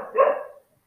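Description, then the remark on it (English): A single short dog bark, loud, with a rough, breathy tone that fades out quickly into silence. “Fuck, this dog is making a ton of noise.”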